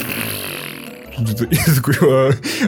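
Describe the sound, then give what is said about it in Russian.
A person blows a series of buzzy, sputtering raspberries into the mic, imitating the constant farting of Dafoe's character in several short bursts, loud after a brief stretch of quiet background hiss. “Да, Дефо вообще там странный персонаж, у него или грыжа какая-то, и у него что-то с желудком, потому что он постоянно пердит.”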